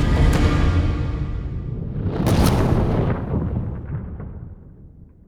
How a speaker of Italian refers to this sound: I dirigenti della Pepsi vengono minacciati di morte finché una bomba carta non viene lanciata dentro una finestra degli uffici e i tre impiegati della Pepsi perderanno la vita nell'esplosione.